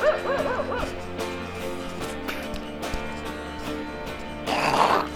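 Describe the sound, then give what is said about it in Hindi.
A man imitates a dog barking, giving a quick run of yappy barks near the start over a steady background hum, followed by a brief noisy rustle near the end. “फिर भाई मैं ऐसे ही किसी पे तो भोंक रहा हूँ शादी हो गई थी तो मैं कुत्ता भोंक दिया था”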